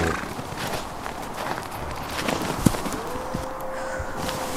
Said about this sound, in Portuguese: Por que tantos cavalos nessa charrete, senhor? Dez cavalos é um pouco de exagero, não? Preciso ser rápido. Nossa, mas que barulho estranho que esses cavalos com chifre fazem. Na verdade, não são cavalos, são renas.